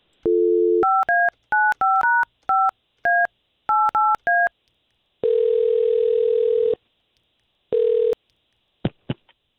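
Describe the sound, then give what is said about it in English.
A phone number is dialed to place a call: a brief dial tone, then a quick run of about a dozen touch-tone keypad beeps, followed by two longer steady line tones and a couple of sharp clicks at the end. No voices. “Let's call her right now and give us the chance to talk to her first.”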